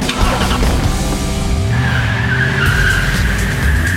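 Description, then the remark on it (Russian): A Renault Captur in Style trim with 17-inch wheels drives hard during a test drive. Its engine rumbles loudly throughout, and over the last half its tires squeal and skid in a sustained high whine. No one speaks. “Устроим тест-драйв.”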